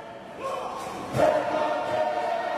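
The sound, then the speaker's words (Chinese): Steady festival crowd ambience at the Merrie Monarch Festival in Hawaii, where people dance the traditional hula, with a busy, even murmur, a sustained humming tone running through it and a single soft thump partway through, after which the sound swells slightly. “你现在听见的是快乐君王节现场的声音。”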